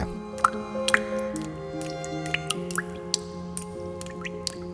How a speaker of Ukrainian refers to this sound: На другому бачимо металеві тази, на третьому стоїть ванна, в яку крапає вода. Це тече дах після влучань.